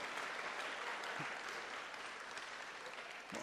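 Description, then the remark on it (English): A crowd applauds steadily, many hands clapping in a dense, even wash of sound that holds at a constant loud level throughout, with no voices standing out. “And hey, we're all clapping.”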